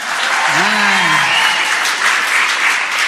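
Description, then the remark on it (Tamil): Loud, dense audience applause rolls on steadily throughout, a large crowd clapping, with a short vocal cry rising briefly over it near the start. “நான் எத்தனை வாட்டி அப்பா அம்மான்னு சொன்னேன் அப்பா கைத்தட்டல”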